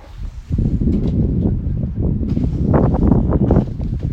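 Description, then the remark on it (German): Wind blows steadily, gusting against the microphone with a continuous low rumble and rushing noise that starts abruptly and holds strong throughout, with no voices. “Hört nochmal hier Soundtracks vom Wind, hoffentlich.”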